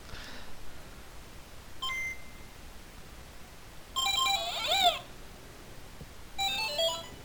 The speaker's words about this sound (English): you remember that sound? it's my Tetris game from when I was like the first Game Boy.